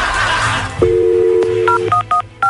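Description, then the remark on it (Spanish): A steady two-tone dial tone hums for about a second, then several short, bright keypad beeps follow in quick, uneven succession as a number is dialed on a telephone. “Vamos a marcarle a tu, a tu novia, ¿ok?”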